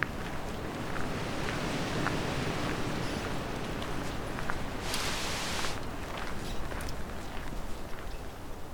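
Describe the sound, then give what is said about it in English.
Strong wind roars steadily along a walking trail, a dense rushing blast with gusty buffeting against the microphone and a brief hissing surge midway; no voices are heard. “I was hoping for a black and white warbler or two, but even if I did get them with this amount of wind, they might be too quiet to hear properly.”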